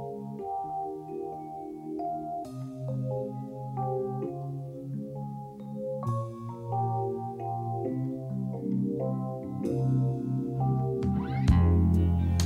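A French pop song, recorded in New York and released as a single in May 1982, plays steadily at full volume, with layered melodic instruments and sustained harmonies filling the mix and a brighter burst near the end.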